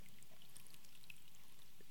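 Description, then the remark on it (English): Water pours steadily from a pitcher into a cup, a soft continuous splashing trickle with faint bright drips, fairly quiet, with no one speaking. “the love of God doesn't run out like this pitcher, it just keeps flowing.”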